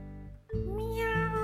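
A witch's cat, black all over with green eyes and named Xiaobo, gives one long, drawn-out meow with a wavering, rising and falling pitch, following a brief low tone that fades out. No one speaks.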